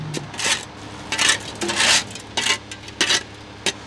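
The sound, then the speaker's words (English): Asphalt falls out the back of a truck down a metal chute in a series of gritty, rattling scrapes, with about half a dozen irregular bursts of hissing grit and faint clinks between them, as two men with shovels fill a hole the size of a large serving plate. No voices. “The asphalt falls out the back of a truck down this nifty slide.”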